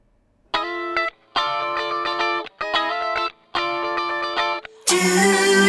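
A song starts with a distorted, effects-heavy guitar playing sustained chords in four bursts separated by brief pauses, then the full band crashes in louder and denser at the end.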